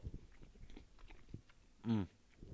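Chewing of Chinese food: soft, irregular wet crunches and mouth sounds repeat steadily, interrupted near the end by a brief, louder voiced hum before the chewing resumes.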